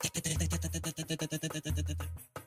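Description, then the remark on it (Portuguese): A voice imitates the rapid ticking of a nail caught in a spinning car tire: a fast, steady run of moderately loud clicks, with a low hum underneath in two stretches. “Como você é, é hábil em ritmo, em tempo, você consegue fazer um barulho tão rápido ali que pode tentar enganar o motorista dizendo que ele tem tipo um prego na roda do carro.”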